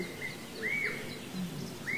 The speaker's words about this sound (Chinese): 听它叫的比较欢的那些都不行，都等着妈妈来喂呢，所以使劲叫唤呀，叫唤呀，告诉我说我在这里，来喂我吧。